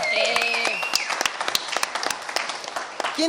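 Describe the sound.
Audience applause for a band in the Sala Julián Carrillo, many hands in dense, irregular claps, steady and fairly loud, with a sustained tonal voice or instrument note at the start and a brief voice at the end.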